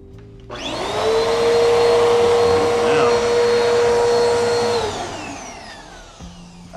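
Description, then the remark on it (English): A vacuum cleaner switches on with a rising whine, roars steadily for about four seconds, then winds down as the motor spins off. “But I'm going to vacuum this shit.”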